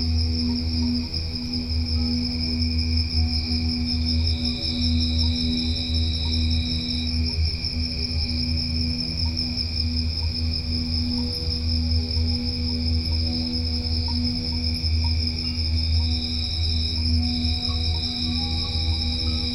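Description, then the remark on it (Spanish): Steady, continuous high-pitched trilling of crickets chirping at night, recorded at El Ancón, municipality of La Paz, Baja California Sur, with a constant low hum underneath; no voices, just an unbroken nocturnal drone at moderate loudness. “Los cantos del espejo plasmat acompañan a las lechuzas y los grillos en sus cantos nocturnos.”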